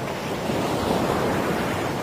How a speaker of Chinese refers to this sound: 大海潮起潮落